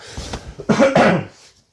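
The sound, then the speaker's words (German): A person coughs, a quick muffled lead-in followed by two harsh, forceful bursts, then silence. “Entschuldigung, ich muss heute ab und zu mal zwischendurch husten.”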